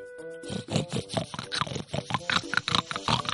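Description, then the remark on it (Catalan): A human voice imitates a piglet grunting as it tries to impress a little rat in a told Catalan story: a quick, rhythmic string of about a dozen short, rough, nasal grunts, fairly loud, with no other talking. “El porquet vol quedar bé i ell que li comença a fer”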